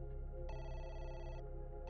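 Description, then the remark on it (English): Navajo leader Zah's telephone rings once more, a steady bright electronic tone lasting about a second over a low background hum, then stops, with no voices. “Just then, the phone rang again.”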